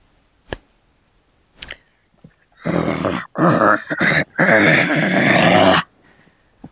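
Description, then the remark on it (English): A voice imitates a monster straining to push a heavy rock: a few short clicks and breaths, then a long gravelly, growling strain broken by brief pauses, loud. “So, can you give me pushing that rock again?”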